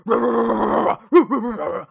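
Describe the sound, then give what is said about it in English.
A man's voice imitates a dog barking back at pit bulls in a front yard, starting with a drawn-out, gravelly growl-bark, then a brief pause and a few short, rising and falling barking yelps, loud. “And if it's my leg day, I like to to bang on the fence really loud and start barking back at the dogs.”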